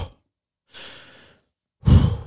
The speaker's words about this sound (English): If you're doing that, hear the big the big fast puff exhale because you think that will calm it. Huge fill my chest with air and then if you're doing that, and you're doing it rapidly because you are afraid, you're going to start to overbreathe.